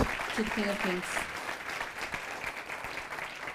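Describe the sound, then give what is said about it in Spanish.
Steady applause from an audience, a strong round given to the King of Kings: a dense crackle of many hands clapping that holds fairly even throughout, with a few brief voiced tones early on mixed into the clapping. “Él ese fuerte aplauso al Rey de Reyes.”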